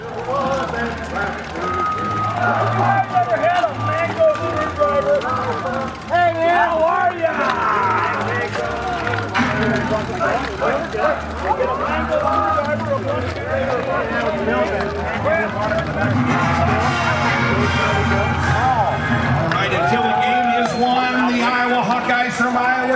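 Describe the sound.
A crowd of thousands of people walking down a main street fills the air with dense, overlapping chatter and murmuring voices, holding a steady, loud level throughout, with occasional higher beeping tones cutting through the din.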